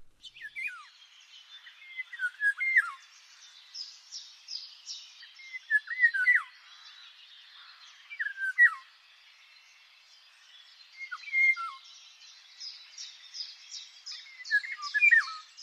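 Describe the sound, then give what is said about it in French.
A Eurasian golden oriole, a blackbird-sized bird, sings short, fluty whistled phrases every few seconds, moderately loud, over a steady background of higher chirping and twittering from other birds. No voices. “C'est le loriot d'Europe, de la taille d'un merle.”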